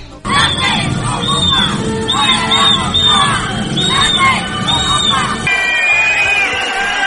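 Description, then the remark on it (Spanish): A large crowd roars with dense shouting and jeering, shrill whistles rising and falling again and again above the din, until the noise thins near the end and a long whistle lingers. “Y mañana, 12 de octubre, es el Día Nacional de los Pitos y los Abucheos.”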